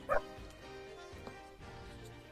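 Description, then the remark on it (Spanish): A single short, sharp, loud dog bark right at the start, followed by a couple of seconds of quiet background noise. “Oh, no, es Coquito. O no, Coquito. Pasa el perro, te saluda”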